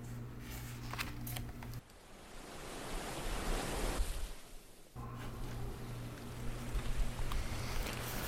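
Steady sea waves wash and swell around a calmly rocking ship, a broad rushing surge building mid-clip, with a low, constant engine-like hum beneath the water for most of it. No voices.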